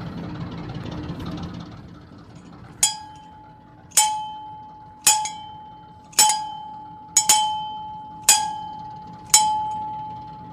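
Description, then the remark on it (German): A ship's bell, a family heirloom from a small canal barge used on the canals of Europe, rings about eight times at a steady pace, each clear metallic strike ringing out and decaying, with one quick double strike, over a low background rumble. “Das, was Sie jetzt hier gerade gehört haben, ist die Schiffsglocke von meinem Großvater.”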